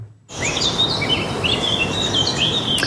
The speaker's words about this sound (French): Souvenez-vous ces chants d'oiseaux à la place des klaxons dans les rues parisiennes